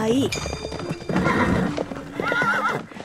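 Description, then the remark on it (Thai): A horse whinnies loudly with wavering high neighs, while a rapid clatter of hooves gallops throughout the short burst, as three princes mount their horses and ride off at a gallop. “เจ้าชายทั้งสามรับที่จะทำตามที่พระบิดานั้นสั่ง แล้วพากันขึ้นม้าควบขับไป”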